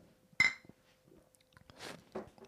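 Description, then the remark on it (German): Beer glasses clink once in a toast, sharply, with a short bright ring, followed by quiet handling noises and a soft slurping sip of beer near the end. “Und nimmt jetzt auch noch ganz erhaben einen Schluck Bier. Ich muss auch noch einen Schluck Prost. trinken.”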